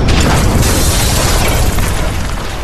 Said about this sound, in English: One night, as David's parents were sitting in the living room watching TV, the house was rocked by an explosion in the basement.